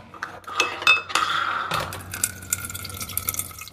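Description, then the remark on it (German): A few bright clinks of glass or kitchenware, then vinegar poured steadily into a measuring cup to measure out 250 milliliters, the splashing stream fairly loud, with faint dripping and no talking. “Jetzt kommt der Essig dran. Den messe ich als erstes mal ab.”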